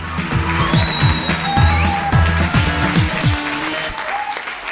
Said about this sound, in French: Je vous demande un tonnerre d'applaudissements pour Fabio Benedetti et Marina Alcaraz.